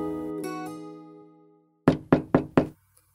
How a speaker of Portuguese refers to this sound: Certa noite, já tarde, alguém bateu a porta.